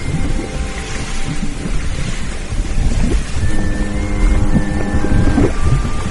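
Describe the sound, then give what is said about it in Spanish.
A heavy, droning ship engine labors steadily over rushing water and wind as the ship slows from 30 knots to 20 and 15, its low rumble straining with a faint rising whine, loud and continuous with no voices. “Al punto que un día los capitanes de los barcos de las grandes rutas advierten que los barcos avanzan lentamente. De 30 nudos bajan a 20, a 15, y los motores jadean y las hélices se deforman.”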